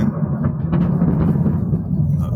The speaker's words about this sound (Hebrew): היה פה עכשיו, כן, יש פה סערת אה, רעמים מוברקים פה מאחוריי, בגלל הרעשים.